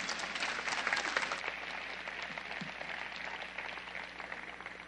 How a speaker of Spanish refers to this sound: Así que denle un aplauso fuerte, por favor.